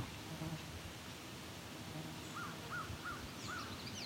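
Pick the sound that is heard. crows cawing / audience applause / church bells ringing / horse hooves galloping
crows cawing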